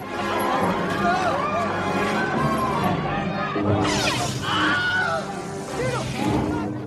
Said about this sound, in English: Sheb Wooley is also credited as the voice of the Wilhelm Scream. If you're unfamiliar, the Wilhelm scream is a stock recording of a distinctive scream that's been used by sound effects teams in over 400 movies and is still used to this day.